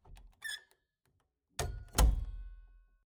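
A door opens with a brief creaky squeak as someone enters a separate room, then two solid thuds as it swings and shuts, the second loudest and ringing out briefly. No one speaks.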